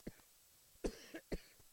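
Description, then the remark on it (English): A few sharp coughs in quick succession, with brief pauses between the bursts and no talking over them. “sorry about that. didn't have my hand on the cough button”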